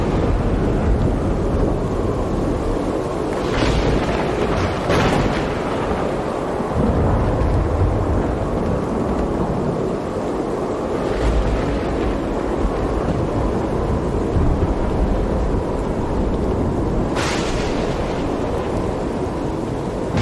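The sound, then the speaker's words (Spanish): A thunderstorm that bursts in suddenly without building up from a breeze, with deep, rolling thunder rumbling continuously over steady rain, with a few sharper cracks standing out briefly; no one speaks. “La tormenta”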